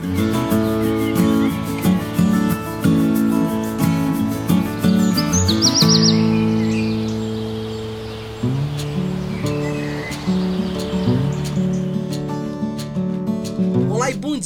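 A sabiá thrush sings a run of clear, warbling whistles and chirps, mixed in with sustained instrumental music that plays loudly throughout. No one speaks.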